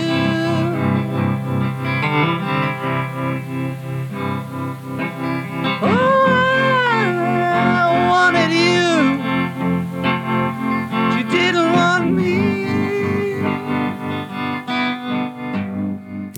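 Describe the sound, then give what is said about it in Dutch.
A demo recorded in a hotel room in Bel Air: an electric guitar plays sustained chords with a wavering tremolo effect, its notes pulsing steadily, with sliding, bending higher lines swelling in partway through. No one speaks. “met zo'n tremolo effect erop. Hè? Ja. Gewoon een elektrische gitaar op zijn op zijn ja.”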